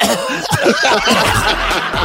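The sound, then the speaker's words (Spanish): A voice imitates a dry cough: a quick run of short, harsh bursts, fairly loud, blending into snickering laughter. “Y cuando ella pregunta de quién es este número, ahí es donde empieza la tos seca, así.”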